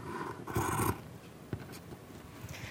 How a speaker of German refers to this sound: misst bei Handgelenk die Länge ab und setzt dann die Schere an.